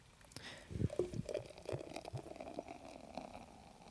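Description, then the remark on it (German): The last beer, saved as a dessert beer, glugs and splashes as it is poured, a burst of bubbly gurgling pulses followed by a softer fizzing trickle as the pour continues. “Das ist nämlich das, was ich als Nachtischbier aufgehoben habe.”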